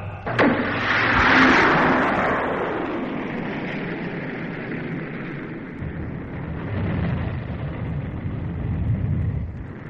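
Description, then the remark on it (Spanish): An atomic cannon fires at a station to destroy monsters, with a sudden sharp blast, followed by a loud, deep roaring rumble that sustains and swells unevenly for several seconds without fading out. No voices are heard. “Y ahora dispararé el cañón atómico contra la estación.”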